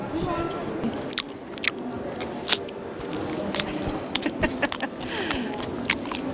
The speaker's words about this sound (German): Also man hört, es schmeckt, äh, man erkennt aber aus dem Schmatzen wahrscheinlich nicht, was es ist, nämlich? Ma, es, ist, es sind diese Raps,